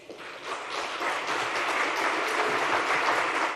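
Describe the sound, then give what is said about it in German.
Steady applause from an audience after Edi Rama's speech about the Vjosa river in Albania, a dense wash of many hands clapping at once, sustained and fairly loud throughout with no voices standing out. “Eine Erkenntnis, für die Edi Rama Applaus erntete.”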